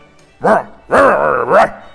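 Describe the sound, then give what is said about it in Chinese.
Hunting dogs bark loudly in three bursts: a short yelp, then a longer drawn-out bark with a wavering pitch, and a quick final one. There is no talking. “猎狗离火焰越来越近，呜呜！”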